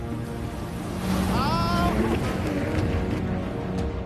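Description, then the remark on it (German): A tow boat's engine revs up and accelerates as its driver gives it gas while a set of giant waves approaches the beach from the south. The whine climbs in pitch briefly over a steady roar of surf and wind, then settles into a loud, continuous rush of water. “Fahrer gibt Gas.”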